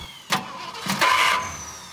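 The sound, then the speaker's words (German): A car engine, parked at a Kaufland supermarket on Ollenauer Straße, cranks in a few short, uneven bursts and never catches when the driver tries to set off, fairly loud, ending in a low, steady hum with no engine running. “Bin zurück zum Auto und wollte einsteigen, oder bin eingestiegen, wollte losfahren und ging nicht”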